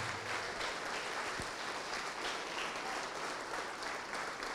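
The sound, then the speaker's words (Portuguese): An audience applauds the name of Jesus steadily, a dense wash of many hands clapping at a constant loudness throughout, with no voices rising above it. “Então vem para frente e vamos aplaudir mais ao nome de Jesus.”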